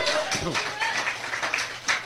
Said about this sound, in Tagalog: Yung palakpak nga po natin, para hindi pa nakapag-almusal yan eh. Pero praise the Lord, alam ko, galing sa puso yan!